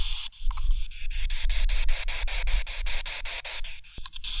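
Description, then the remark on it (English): A spirit box sweeps through FM stations, giving steady hissing radio static chopped into fast, regular pulses about five times a second. It stays loud throughout, with no voices. “But then you can sweep through radio frequencies or FM frequencies, and it sounds like this.”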